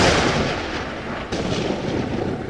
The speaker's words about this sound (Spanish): Uy, ¿escucharon eso? Mejor vamos al auto que se viene una retormenta.